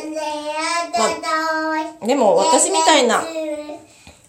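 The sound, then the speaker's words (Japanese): A young child's high-pitched voice chatters and vocalizes with rising and falling pitch, fairly loud, mixed in with a woman speaking. “子供がねごめんなさい”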